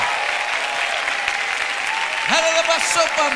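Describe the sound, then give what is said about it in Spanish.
A large audience claps steadily in worship, praising God for thirty seconds, a dense wash of hands with cheering voices rising and swelling over the applause toward the end. “For the next 30 seconds, come on, let's clap our hands.”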